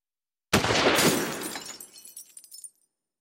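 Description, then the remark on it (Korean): A sharp, loud rifle shot cracks out and is followed at once by glass shattering, with bright tinkling shards scattering and fading over about two seconds. No voices are heard. “섬뜩한 청소리가 크게 터져나오고 유리가 깨지며 쨍그랑하는 맑은 소리가 길게 울렸다.”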